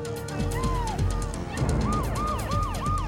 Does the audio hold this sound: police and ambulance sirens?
yes